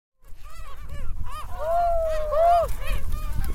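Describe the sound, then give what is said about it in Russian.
Many seagulls call repeatedly on a beach in fine weather, in quick, overlapping bursts of harsh, rising-and-falling cries, loud, over a steady low rumble of wind and surf. People usually feed the gulls here. “На пляже целое больше чаек.”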